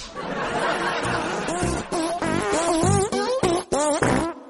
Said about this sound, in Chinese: 今天穿了个喇叭裤，放的屁应该更响吧？